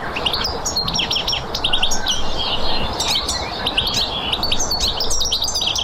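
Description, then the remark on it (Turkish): Lively chirping and twittering song of a goldfinch living in New Zealand, many quick high notes tumbling over one another continuously, over a steady low background rumble. “Bu ses de Yeni Zelanda'da yaşayan bir sakaya ait. Rengarenk bir ispinoz türü saka.”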